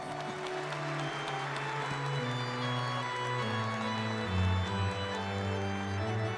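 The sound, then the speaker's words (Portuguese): An audience claps steadily together in a reverberant church sanctuary after the Gospel reading at Mass, the dense applause blended with sustained organ or keyboard chords playing underneath for the whole stretch. “Recebendo a palavra da salvação com uma salva de palmas.”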